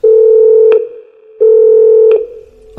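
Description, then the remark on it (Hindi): A hotel corridor telephone rings twice with a loud, steady electronic tone, each ring lasting under a second and separated by a brief pause, with no one speaking. “उस घटना के तकरीबन दो सप्ताह के बाद कॉरिडोर का फोन बजा”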